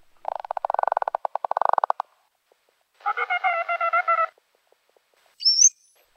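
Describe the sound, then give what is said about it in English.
Bottlenose dolphin sounds in three parts: a fast train of sharp echolocation clicks, then a buzzy, harmonic burst-pulse sound, and finally a brief high, rising whistle, with no talking. “Okay, now let's listen to the bottlenose dolphin. It also starts with echolocation and then the other two registers.”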